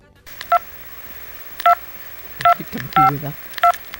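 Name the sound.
telephone keypad dialing tones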